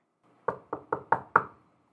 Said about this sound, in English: Jenna wiped away the tear before knocking on the front door.